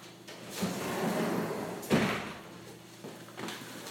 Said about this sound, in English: I'm just going to close over that door there.